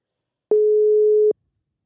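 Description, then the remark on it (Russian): A single steady telephone ringback tone from an outgoing phone call sounds for just under a second, a clean, loud electronic beep with abrupt start and stop, surrounded by silence. “Звоню Кире и надеюсь, что у нас проблем со связью не будет. Вот звонки я слышу.”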